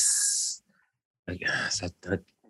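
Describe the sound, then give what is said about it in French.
A person lets out a sharp, loud hiss lasting about half a second to shoo their cat, then falls silent before a voice starts talking. “je fais juste shoot mon chat.”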